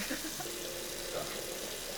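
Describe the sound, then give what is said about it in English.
A faucet runs steadily, a continuous hissing splash of warm water pouring into a sink that holds an even level for the whole moment. “Gotta get warm water again.”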